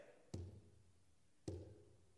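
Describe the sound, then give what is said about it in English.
Two distinct knocks on a solid surface made by a girl, about a second apart, each a sharp rap with a short hollow thud after it, quiet, with near-silence around them. “if you can hear us, I want you to respond to my knocking. And she went like this.”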